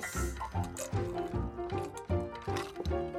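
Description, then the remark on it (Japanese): Sparkling water glugs steadily into a glass for a toast, a run of rhythmic gurgling pulses about every half second with a bright fizzy wash over the top, no voices. “今も炭酸水をずっと入れてる感じなんですけど”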